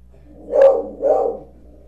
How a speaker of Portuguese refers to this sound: o cachorro às vezes ele faz mais barulho do que todo mundo aqui